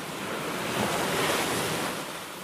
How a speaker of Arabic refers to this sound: كنت على سيف البحر في بيروت وكان البحر هائجا غضبان يرمي بامواج كانها الكثبان وقد فر منه الناس